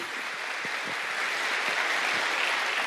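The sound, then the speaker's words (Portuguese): A steady wash of audience applause, many hands clapping at once in a dense, continuous patter that holds an even moderate loudness throughout, with no voices on top. “Pode aplaudir.”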